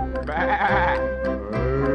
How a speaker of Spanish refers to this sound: bebe, bebe, dice el borreguito